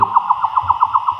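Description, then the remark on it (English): A slowed-down recording, made with an Echo Meter Touch ultrasonic recorder by Wildlife Acoustics, of a free-tailed bat's feeding buzz as it chases and catches an insect: a steady train of about nine squeaky, chirping pulses repeating quickly and evenly, with a low rumble underneath and no voices. “That's his feeding buzz. He's locked in.”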